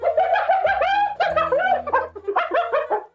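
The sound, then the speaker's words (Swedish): A spotted hyena gives its laughing call, a rapid run of high, quavering giggles rising and falling in pitch, loud, repeating steadily for a few seconds with no talking. “det, det, här skrattande ljudet som eh, dels då framförallt fläckiga hyenor gör är ju en del av mm. deras kommunikationssystem.”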